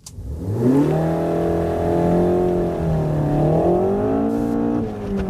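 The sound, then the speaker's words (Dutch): A Renault Megane RS Trophy R car engine revs up and holds a loud, steady drone, dips briefly, then climbs again in a second rev, continuous for about five seconds with no talking. “Maar eh, ja, de Renault Megane RS Trophy R, gewoon leuk.”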